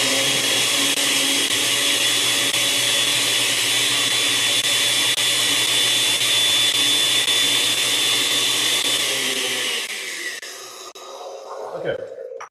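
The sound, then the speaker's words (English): A loud, steady blender blends sauce ingredients, including about a tablespoon of hemp seeds, for about ten seconds, its high motor whine holding constant before it shuts off and winds down, followed by a few small clatters. “So about 10 seconds in the blender.”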